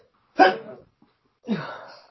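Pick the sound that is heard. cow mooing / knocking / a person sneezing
a person sneezing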